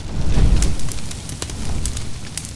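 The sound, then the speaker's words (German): A large fire crackles, with sharp, irregular pops and snaps scattered over a low, steady roar, as 57 poetic pieces are thrown into it. The low rumble is strongest at the start and eases slightly. No voices. “Und noch an demselben Abend, nachdem er Greens Besuch bei einem Edelmann auf dem Lande gelesen hatte, ließ er ein großes Feuer errichten und warf all seine 57 poetischen Stücke hinein.”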